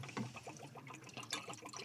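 A drink pours steadily into a glass for a couple of seconds, a soft, bubbly liquid splashing and gurgling at close range with no talking.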